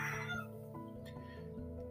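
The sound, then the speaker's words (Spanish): A rooster crows in a long, strained call with shifting pitch, moderately loud, filling the moment without other sounds competing. “Gracias Gallo por participar.”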